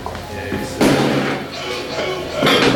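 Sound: footsteps climbing stairs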